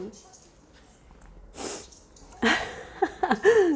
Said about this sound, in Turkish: esnemekten bir hal oldum ben de çok güzel.